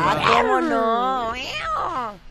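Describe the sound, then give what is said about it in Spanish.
A person imitates a cat with a long, drawn-out vocal meow, improvised in place of a cat sound effect, sliding and wavering in pitch, fairly loud for about two seconds with no other sounds. “te prometo que íbamos a poner efectos de gatos de calidad, pero hemos tenido que improvisarlo”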